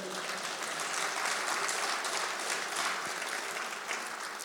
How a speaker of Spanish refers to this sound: Ocupen su lugar, por favor, y denle un aplauso a la palabra del Señor.